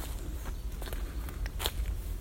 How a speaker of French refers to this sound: J'entends les pas qui crissent sur le sol